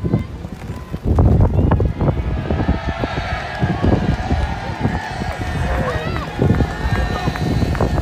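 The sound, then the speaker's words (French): Gusty wind buffets the microphone at a racecourse near Mont Saint-Michel, France, during a film shoot on 20 May 2021, a steady low rumble with rough bursts throughout, while film extras in the grandstands talk and murmur underneath. “mais aussi du vent, comme on peut l'entendre dans cette vidéo tournée par un journaliste de West France”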